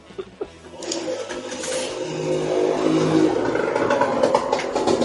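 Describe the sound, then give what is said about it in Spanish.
A large motorcycle engine revs outside, building from a low rumble into a louder, sustained roar that passes by, with a rough mechanical rattle throughout. “Esa moto, es gigante.”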